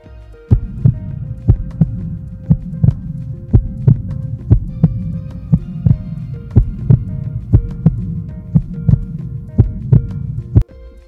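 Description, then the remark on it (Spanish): A steady heartbeat pulse thumps about once a second, each beat a sharp, prominent knock riding over a continuous low, murmuring rumble, with no voices throughout. “Con esta reflexión les pedimos que volvamos a tomar nuestro pulso y contemos las 10 pulsaciones”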